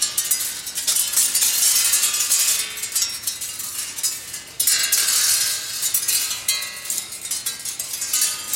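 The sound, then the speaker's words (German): Flat metal sheets hung from loops, which people walk through to make noise, clang and shimmer together in a dense, continuous metallic wash, loud, with a fresh swell of clattering about halfway through. No voices are heard. “was ihr da hört, sind im Wesentlichen Blech.”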